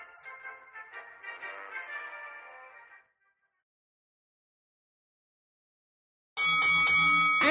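A loud metallic bell clangs suddenly after a few seconds of silence, ringing sustained like a boxing ring bell starting round five, preceded by soft tonal music that fades away.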